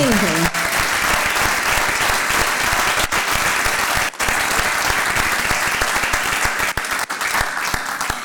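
loud audience applause

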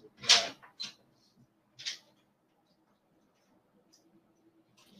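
door being closed

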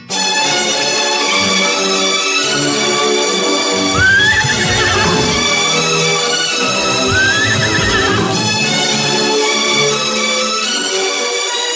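mare neighing

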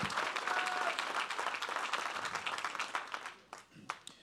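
audience applauding

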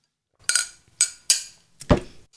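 glasses clinking

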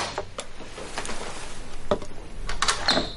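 door being opened

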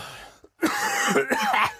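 cough

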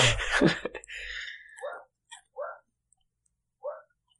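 small dog barking

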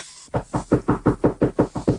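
knocking on a door

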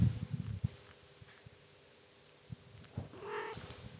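cat meowing

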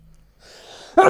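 sneeze

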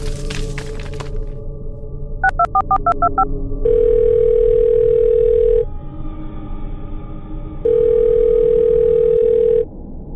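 phone call ringback tone

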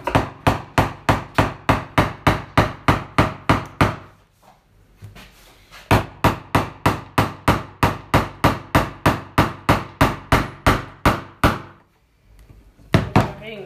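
knocking on wood

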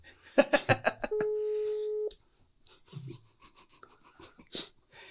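phone call ringing

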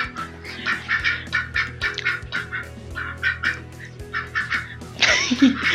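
duck quacking

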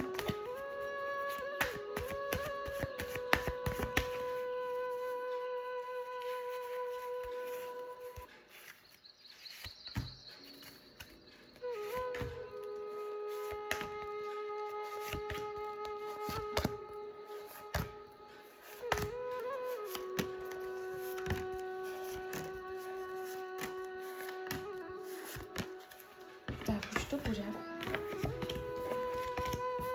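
shuffling tarot cards

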